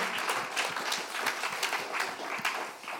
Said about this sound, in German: Herzlichen Applaus, jawohl.